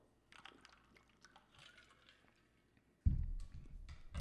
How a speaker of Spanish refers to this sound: O sea, voy a tomar un poquito de agua.